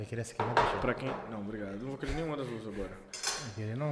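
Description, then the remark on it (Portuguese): Cutlery and plates clink and scrape intermittently while alligator (jacaré) pizza with dried meat and catupiry is cut and served, with a few sharper knocks standing out beneath steady conversation between several people. “Pra quem está só escutando, esse é o momento que estamos servindo a pizza”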